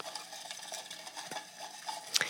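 Small paper slips rustle and shuffle inside a small box as a prize winner is about to be drawn, a steady soft scratchy rummaging with a few crisp flicks and one sharper crackle near the end. No voices.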